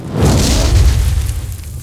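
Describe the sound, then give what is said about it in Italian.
A fire sound effect: a sudden whooshing flame burst swells into a loud, deep roar that rumbles steadily for over a second before easing off slightly, with no voices present. “Quindi per favore vorrei un effetto sonoro stupefacente, di fiammata.”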